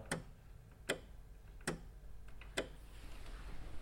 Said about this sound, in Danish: Output-modulerne, det er basalt set relæer, der slutter til